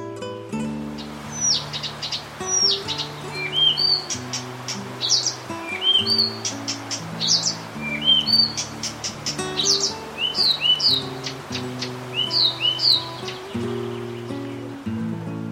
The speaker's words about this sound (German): Das war der Buschrohrsänger.